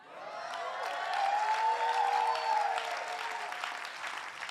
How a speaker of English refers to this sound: Um, I'm, I'm going to give you an opportunity to get happy again because I like clapping and shouting.